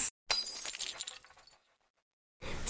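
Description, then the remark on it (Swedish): Glasses clink together in a toast, a bright glassy ring that fades over about a second, framed by short sharp bursts of the same glassy sound at the start and end. “Men eh, skål för att vi träffades gumman.”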